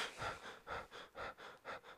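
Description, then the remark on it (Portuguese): A person imitates their own quick, shallow, strained breathing under stress: about four or five short breathy huffs in a steady rhythm, each roughly half a second apart, fairly soft, with no talking. “Aí eu acho que a minha respiração normal fica muito aquela respiração assim.”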